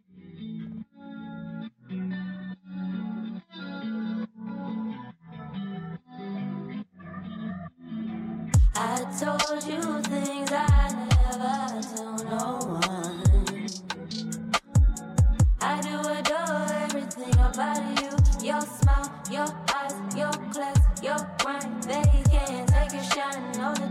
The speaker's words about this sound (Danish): Okay, det er den vibe der. Uden at, uden at afsløre for meget. Ja, ah, men okay, det kan mm. man lige øh, have i mente, når man hører tracket her.